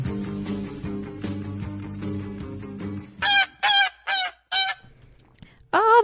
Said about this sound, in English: geese are back.